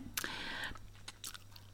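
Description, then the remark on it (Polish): Wet lip smacking, made deliberately while reading a text aloud for a voice recording: a longer sticky mouth noise followed by a few short, sharp smacks and clicks, heard alone over a faint steady hum. “Następną rzecz, którą ja specjalnie tutaj zastosowałam w tym tekście, to jest mlaskanie”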